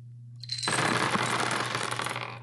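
Dice drop and scatter in a dense rattling clatter that keeps tumbling for about two seconds, with a steady low hum underneath and no voices.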